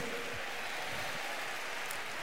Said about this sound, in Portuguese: Aplauda ao Senhor e glorifique o nome do Senhor.